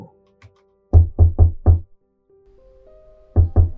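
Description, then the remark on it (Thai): Four firm knocks on a wooden door in quick succession, a pause with a faint hum, then two more knocks, loud with no voices. “พอรู้สึกว่าจะเคลิ้มเคลิ้มก็มีเสียงเคาะประตู”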